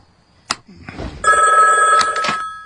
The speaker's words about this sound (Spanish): esa malvada grabación de nuevo ha llamado toda la noche. Desconecta el teléfono.